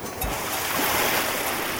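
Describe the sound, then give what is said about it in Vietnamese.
A quick splash of sea water thrown onto a person's face by an elderly village chief, followed by a steady, hissing wash like surf that fills the rest of the moment. No one speaks. “Sao già lại tạt nước biển lên mặt con”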